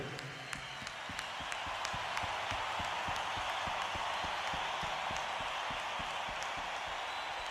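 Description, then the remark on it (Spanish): A large crowd at a band's concert applauds continuously, a dense wash of clapping filling the space, with a few sharper claps and a faint voice or shouts mixed in, sustained at steady loudness throughout. “Vamos a darles un aplauso nosotros a ustedes.”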